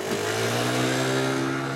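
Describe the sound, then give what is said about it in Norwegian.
A moped engine revs loudly, its buzzing, steady whine holding for a couple of seconds with no voices over it. “Tre jenter på hver sin moped.”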